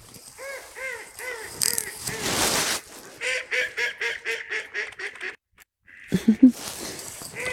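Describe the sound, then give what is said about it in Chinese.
Mandarin ducks, four males and two females, call in a quick run of short, nasal, honking notes, repeated rhythmically with a brief burst of rushing noise early on and a short pause before more calls. “听到他们在叫声了吗？”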